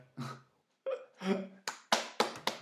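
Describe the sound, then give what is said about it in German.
A few sharp hand claps, about four in quick succession, fairly loud, following some short voiced laughing sounds. “ich hab kurz Applaus mal dafür.”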